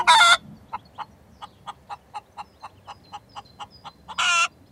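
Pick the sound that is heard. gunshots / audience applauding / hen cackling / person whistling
hen cackling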